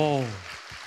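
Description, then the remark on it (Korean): A brief patter of audience applause, a soft crackling clatter of many hands that rises as a voice trails off and continues on its own for under a second. “박수 한번 주세요.”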